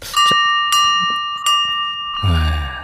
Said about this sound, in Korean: 종소리군요.